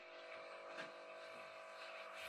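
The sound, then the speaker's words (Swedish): A coffee machine running its self-cleaning cycle gives off a steady, droning mechanical whir with a faint buzzing tone, continuous and unbroken throughout, fairly quiet and heard alone without voices. “Det var inte en skrivare som började låta utan det var ju en kaffemaskin.”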